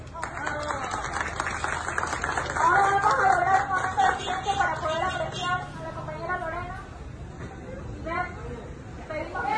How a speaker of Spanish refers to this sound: Estamos en la ciudad de Machala, 23 de julio del año 2020. Nos encontramos en un plantón en el que lo que se solicita es no más profesores acosadores en la Universidad Técnica de Machala. Un aplauso para las compañeras.